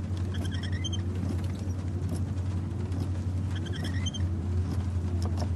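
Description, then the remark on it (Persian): A car engine turns over with a steady, grinding low drone but never catches, the cranking sound repeating in a loose cycle with faint squeaky mechanical chirps above it, in a scene from the Iranian film 'Chizhayi Hast Ke Nemidani' by Fardin Sahebzamani. “الحمدلله ماشین راه نمیره”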